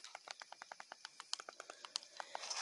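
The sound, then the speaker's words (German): Quick, evenly spaced footsteps from a video game patter along in a steady running rhythm, light and fairly faint, with no voices over them. “Hört ihr die Schritte?”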